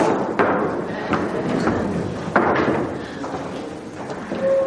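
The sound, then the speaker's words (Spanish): A group of people push their chairs back across a floor, a busy mix of scraping and several dull knocks and thuds over a few seconds, with faint background voices. “Echar las sillas hacia atrás, no nos vamos a caer.”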